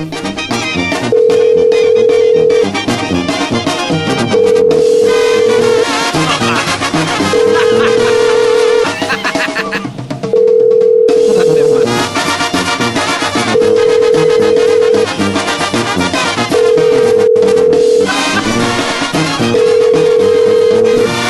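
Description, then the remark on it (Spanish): A steady, mid-pitched ringback tone repeats about seven times in even bursts. It is a phone ringing on an outgoing call placed on the Radio Poder radio show, heard over loud, continuous background music. “A ver, vamos a marcar de nuevo. Creo que no entró la llamada.”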